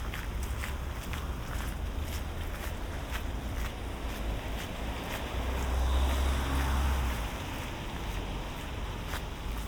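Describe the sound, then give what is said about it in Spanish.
Footsteps of a young man jogging pass by at a steady rhythm as he overtakes on the left, with a brief swell as he goes past, over a constant low rumble of construction work in the background. No one speaks. “Se escuchan las obras, un chico corriendo, haciendo footing, ha pues adelantado por la izquierda.”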